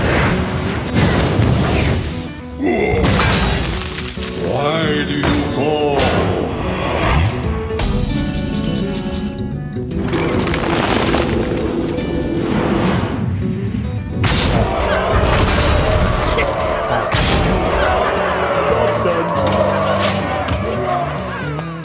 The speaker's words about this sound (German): Und ich finde auch, wenn man die einzelnen Sounds kennt, äh, finde ich es doch schon bombastisch, wie sie das aneinander gekettet haben. Ich möchte mal ganz kurz an dieser Stelle eine Kampfszene einspielen.